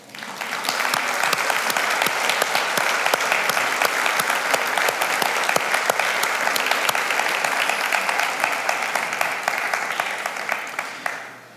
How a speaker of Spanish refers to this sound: Y yo deseo que le demos en este día un aplauso al Señor porque nos dio otro día de vida.